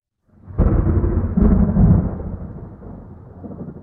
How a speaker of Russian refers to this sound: Для чеченцев гром есть звук ударов, наносимых ангелами дьяволу, а молния — огневая стрела, которой ангел пронизывает нечистые существа.